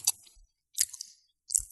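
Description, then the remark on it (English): Someone chewing a Reese's Big Cup peanut butter cup: three soft, moist crunching bites spaced at a steady rhythm, fairly quiet, with no talking. “I'm going to re- wait to eat the rest of that until we're done.”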